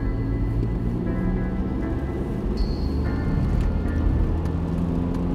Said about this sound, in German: Klaus trat erleichtert aufs Gas. Im Rückspiegel sah er den Fremden und sein Fahrzeug kleiner und kleiner werden.